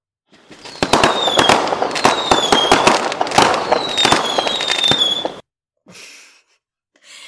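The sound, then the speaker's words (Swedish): A fireworks rockets sound effect for New Year: rapid, sharp crackling bangs overlapping with rising whistles for about five seconds, loud and dense, then a few faint breathy sounds afterward. “får ni lyssna på raketer nu.”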